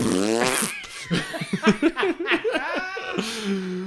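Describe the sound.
A voice blows a sputtering, fart-like raspberry, a vocal imitation of a fart, fairly loud, breaking into bursts of laughter partway through before a final drawn-out vocal tone.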